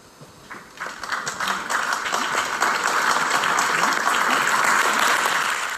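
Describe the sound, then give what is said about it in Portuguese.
A large theater audience, mostly older people, bursts into applause after a play, quickly swelling from scattered claps into a dense, loud, sustained ovation that holds steady to the end. “espetáculo agradou e o público retribuiu com uma grande ovação.”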